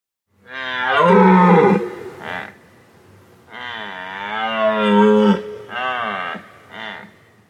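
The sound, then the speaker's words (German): An elk bellows loudly: two long, deep, drawn-out calls, each followed by shorter grunting bursts, with no talking. “Lassen wir den Elch frei.”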